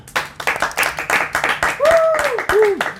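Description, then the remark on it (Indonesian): A small group claps in an irregular, steady patter for about three seconds, with two short rising-and-falling whoops or whistles breaking through in the second half. “Tepuk tangan dulu buat tepuk tangan”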